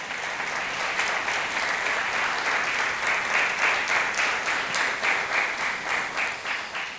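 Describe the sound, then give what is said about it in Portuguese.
Sustained applause from a large audience, a dense wash of many hands clapping at once, steady and fairly loud throughout with faint rhythmic surges, and no voices rising above it; the applause is a round of applause for the Lord. “Quero uma, uma salva de palmas para o Senhor.”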